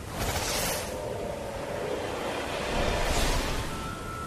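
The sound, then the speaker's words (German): Ocean surf rushes and surges continuously, a broad wash of water noise with two stronger swells near the start and toward the end, fairly loud with no voices. “Und da eine Welle. Sie spült die Muschel mitsamt der Kinder hinaus aufs große Meer.”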